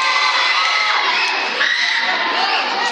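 A large audience of dog lovers cheers and shouts loudly and continuously, with high excited voices and whoops blending into a dense, sustained roar for the whole three seconds.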